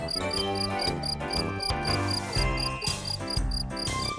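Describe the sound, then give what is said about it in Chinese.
A cricket chirps in steady, evenly spaced high-pitched pulses over gentle instrumental music with a soft bass line, with no talking. “小蟋蟀觉得好快乐。”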